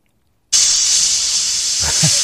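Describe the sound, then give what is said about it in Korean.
After a brief silence, a pressure cooker abruptly starts venting steam in a loud, steady, high-pitched hiss that holds for about two seconds, with faint low rattling near the end. “압력솥 김 빠지는 소리래요.”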